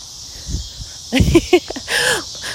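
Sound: cicadas buzzing loudly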